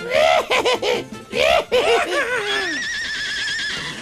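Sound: horse neighing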